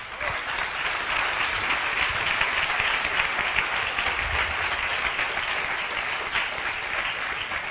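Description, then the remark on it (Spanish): Sustained applause from an audience for their leaders, a dense, steady wash of many hands clapping at an even loudness for several seconds, with no voices standing out. “Gracias y un aplauso a sus líderes.”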